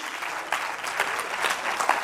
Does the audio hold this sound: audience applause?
yes